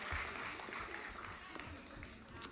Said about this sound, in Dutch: Applaus voor de oude Mozes en de jonge Mozes. Dank jullie wel.